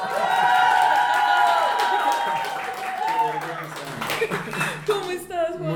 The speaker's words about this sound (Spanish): Por favor, un aplauso gigante.